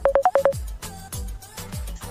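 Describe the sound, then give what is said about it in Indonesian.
A quick series of five clear electronic phone beeps, followed by a low, hollow line hum with repeating thumps as an incoming call is picked up and connects. “Nah, sekarang setelah telepon itu ada yang telepon-telepon tadi sebenarnya belok cuman oke masuk lagi nih sepertinya. Saya angkat ya.”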